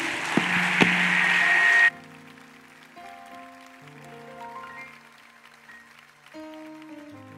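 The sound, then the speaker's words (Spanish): An audience claps loudly for about two seconds during a sermon, a dense crackling burst that cuts off abruptly, followed by soft sustained keyboard chords playing alone. “Den un aplauso en lo que me tomo una agüita.”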